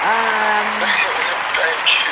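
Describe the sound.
A crowd applauds a spoken-word poetry performance at a show in a steady, dense wash of clapping, with whooping and cheering voices rising over it, including a sustained falsetto-like whoop early on.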